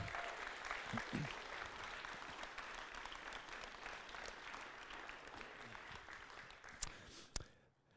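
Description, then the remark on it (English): A sustained burst of audience applause, dense, steady clapping from many hands given in appreciation of a group of mission partners, including the African Inland Mission, carrying on for several seconds before tapering off with a few final claps. “Would you give this group of people another round of applause and express your appreciation?”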